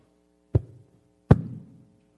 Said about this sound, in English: Or you can hear that me smack the mic, one of the two.